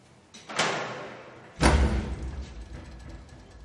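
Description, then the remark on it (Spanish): A metal barred door is pulled open with a brief scrape, then swings to with a heavy, ringing clank and a low thud that fades out, as a man opens it and enters a room of safe deposit boxes. No voices are heard. “Abre otra puerta enrejada y entra a una sala con cajas de seguridad.”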